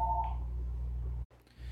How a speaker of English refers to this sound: Sorry about that. I kind of got interrupted. Someone was calling my my phone there, and uh, so my my work here is kind of getting a little busy now.